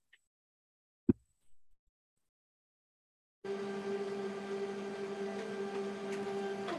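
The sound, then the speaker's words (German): A sharp click, then a few seconds of quiet before a steady mechanical whirring hum starts up and runs continuously as a printer runs a calibration routine, moderately loud. “Und so auch dieser Kalibrierungsversuch meines Druckers.”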